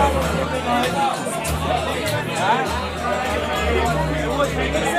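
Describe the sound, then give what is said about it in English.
A crowd of fans gathered in a town square in heavy rain chatters: a dense, steady babble of many overlapping voices, loud and continuous throughout, with no single speaker standing out. “As usual, the fans gathered in the town square despite the heavy rain.”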